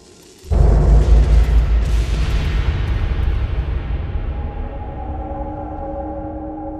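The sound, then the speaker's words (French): A huge explosion in a gold mine bursts in after a brief quiet moment, a deep, heavy boom that rolls on into a long, slowly fading rumble with no voices present. “Un jour, lors d'une exploration dans la mine pour trouver une grosse source d'or, une explosion gigantesque se déclenche, provoquant alors la disparition soudaine d'un grand nombre de personnes.”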